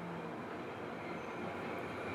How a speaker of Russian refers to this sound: но дело в том, что мы, в принципе, городе, например, находимся в каком-то шуме, шум трамвая, вот, проходящего.